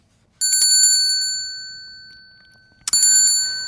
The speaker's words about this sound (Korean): 이게 저, 어, 어떻게 보면 초인종 소리 같은데, 그새 이제 12월 되면 울리는 구세군 종소리입니다. 종소리.